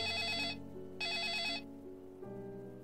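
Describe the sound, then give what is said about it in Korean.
A telephone at a police station in a village in a mostly farmland area rings one morning with a missing-person report call: it rings twice in steady bursts, a bright trilling bell pattern with a short pause between rings, followed by a sustained electronic tone, with no voices present. “그리고 그 마을들 중 한 곳에 있는 경찰서에 어느 날 아침 전화가 걸려와.”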